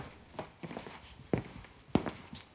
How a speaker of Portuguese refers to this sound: Ando pela sala e vou abrir a janela.